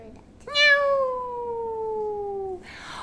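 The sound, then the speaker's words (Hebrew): A single long, drawn-out meow from Oscar the cat that starts sharply and slowly slides downward in pitch for about two seconds, clear and fairly loud, then gives way to a brief rustle. “גילי ואורי מקימות קרקס עם אוסקר החתול”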